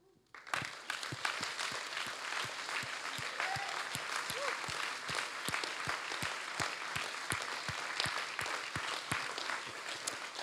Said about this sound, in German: Okay, und wenn ihr jetzt einfach steht, dann, dann denkt an diese Person und dann lass uns einfach zusammen diesen Menschen einen Applaus geben.